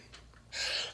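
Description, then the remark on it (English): A single sneeze: a faint quick intake of breath, then a loud, hissing burst of air lasting under half a second before it trails off. “Bless you.”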